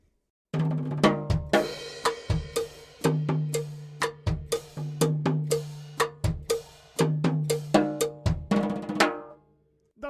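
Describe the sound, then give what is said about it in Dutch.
A single drummer on a drum kit plays a steady Cuban cha-cha groove, with a bright cowbell clanking in quarter notes on every beat over bass drum and snare hits, fairly loud, with no talking. “Heel duidelijk te horen is de cowbell die in kwarten, oftewel op iedere tel, een klap geeft.”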